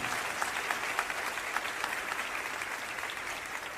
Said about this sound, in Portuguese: Pode aplaudir, aplaude. Fica bonito no vídeo.